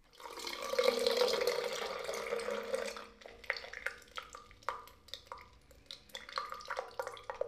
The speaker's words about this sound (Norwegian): God idé, kjære! Jeg må bare en kjapp tur på toalettet. Esther Robinson skunta seg inn på badet og tissa bitte litt.